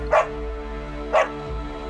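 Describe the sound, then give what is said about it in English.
A voice imitates a dog barking: three short, sharp barks roughly a second apart, fairly loud, with a steady low hum underneath and no other talking. “kind of making like sort of like just little noises, and then he kind of calms down and he barks at it”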